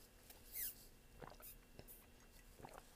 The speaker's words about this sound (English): Sorry if you hear my slurping.